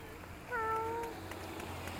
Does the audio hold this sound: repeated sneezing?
no